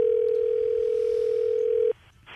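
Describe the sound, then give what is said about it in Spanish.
A telephone ringing tone during a call placed to do the 'Mexican Alarm': one steady, mid-pitched electronic tone holds for about two seconds, then cuts off abruptly, leaving only faint line noise and a brief rustle. “ok, márcale, por favor”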